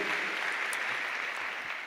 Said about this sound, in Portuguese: Vamos recebê-la com a salva de palmas? Que privilégio! Que privilégio!